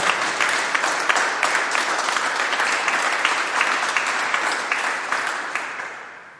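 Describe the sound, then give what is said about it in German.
An audience at an evening event applauds steadily for several seconds, a dense wash of many hands clapping with no voices, fading slightly at the end. “Erstmal ein bisschen Applaus.”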